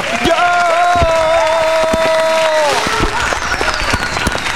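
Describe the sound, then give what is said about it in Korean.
Firecrackers set off in celebration and congratulation pop in sharp, irregular bursts over a steady wash of applause. Sustained whistling tones glide and fade in the first few seconds. “터뜨려 복죽을 터뜨리라고.”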